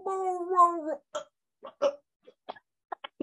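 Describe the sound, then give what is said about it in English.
A person's voice imitates a dog retching and throwing up its dinner: a drawn-out, strained harmonic groan followed by a series of short, choppy gagging hacks, loud, with no other talk. “like, "Oh, there she goes," and she threw up all her dinner.”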